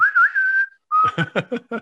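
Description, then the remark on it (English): A whistled western-style theme plays as a text message notification on a phone: one long, slightly wavering whistled note, a short pause, then another whistle followed by a quick series of punchy, rhythmic notes. “Anyway, that's my notification that I've got currently for for text messages.”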